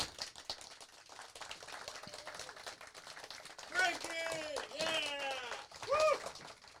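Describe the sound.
An audience claps in a dense, steady patter for several seconds in applause for a man from the audience who has just given his name, with whoops and cheering voices rising over the applause in the second half.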